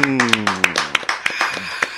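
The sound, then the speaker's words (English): A scattering of sharp hand claps in an uneven rhythm, roughly a dozen crisp snaps over two seconds, with voices talking and humming underneath. “Y'all clap hey. it up one time.”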